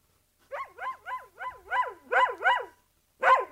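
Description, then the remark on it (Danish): A dog barks in a quick, steady series of about seven sharp, tonal yaps, pauses briefly, then lets out one more bark, fairly loud with no talking. “Hunden, vi elsker den alle sammen”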